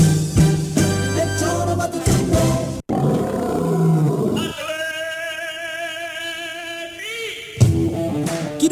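A lion roars loudly and close up, deep rumbling growls building into a long, sustained bellow before another burst of roaring at the end, with no talking.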